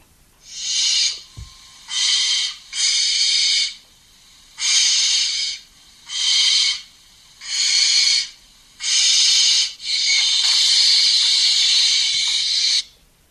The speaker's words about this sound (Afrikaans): Eerstens eh, het jy dan verwys na die nonnetjiesuil en ons ken almal die pragtige roep van hierdie voël.